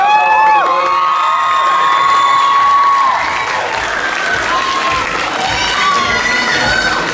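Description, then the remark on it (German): A loud audience at a dance contest screams and cheers continuously for a second-place dance group, with high-pitched shrieks and whoops rising over a steady wash of clapping and shouting, sustained throughout. “So muss das sein hier. Ganz viele Schreie.”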